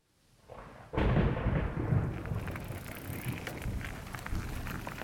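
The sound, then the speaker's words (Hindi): Heavy rain bursts in suddenly after a quiet moment, a dense steady roar of downpour with crackling drops and a low rumble like thunder, loud, no voices. “Raghavan cycle से अपने गांव की ओर जा रहा था कि अचानक बारिश बहुत ज़ोर से होने लगी बारिश को देखकर राघवन को ऐसा लग रहा था कि यह बारिश हाल फिलहाल नहीं थमने वाली”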